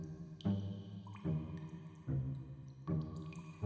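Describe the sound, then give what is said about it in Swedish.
Four water drops fall at a slow, steady pace inside a cave, each one landing with a soft plop that rings and echoes briefly in the hollow, reverberant space. No voices are heard. “De gick in i grottan och där inne hördes droppande vatten.”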